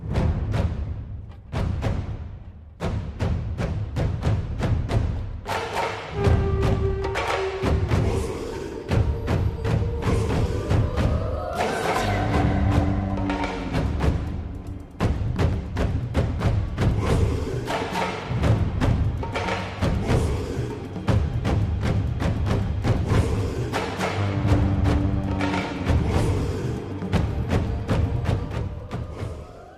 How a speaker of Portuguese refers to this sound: vai continuando os tambores